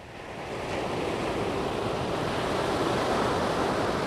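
Steady roar of ocean surf washing onto a beach, swelling in the first half-second and then holding as a broad, continuous rush with a little wind noise, no voices.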